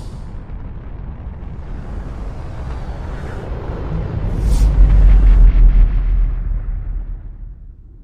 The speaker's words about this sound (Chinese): 曲率驱动引擎启动，系统运行正常。空间扭矩二十三点八，推进曲率比三点四一比一。